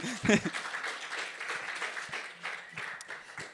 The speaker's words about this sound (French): Donc, on, applaudit, on applaudit bien fort